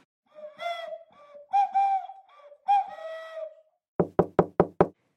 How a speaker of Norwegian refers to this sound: Vi prøver å banke på døren til en kjent politiker, men blir ikke overraska når ingen er hjemme.